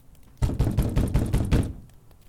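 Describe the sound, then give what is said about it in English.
Six or so firm knocks on the locked door of a house land in a quick, steady rhythm, fairly loud, then stop, leaving quiet behind. “Larry waited for a second and knocked again,”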